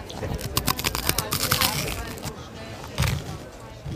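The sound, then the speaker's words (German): Loud, crackling crunches of someone biting into rock-hard toasted baguette slices sprinkled with pesto, served as focaccia croutons: a rapid burst of sharp snaps for about two seconds, then quieter chewing with a voice murmuring faintly. “Knusprig ist das.”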